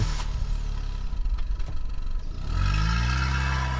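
A car engine rumbles and clatters, then revs up sharply with a rising whine as the vehicle pulls away to drive to a hospital, staying loud throughout with no voices.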